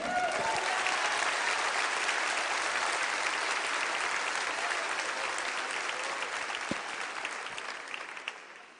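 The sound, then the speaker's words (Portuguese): A church audience applauds the Lord steadily, a dense wash of many hands clapping at an even, sustained level for several seconds before gradually thinning out toward the end. “Pode aplaudir o Senhor.”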